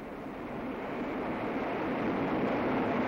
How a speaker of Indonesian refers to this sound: There it is. Look. Oh, and there's a waterfall too.